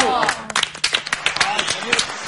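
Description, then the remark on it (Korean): An audience breaks into applause, a dense patter of claps lasting a couple of seconds, with a voice speaking over the clapping. “오, 박수 이럴 때 박수. 박수.”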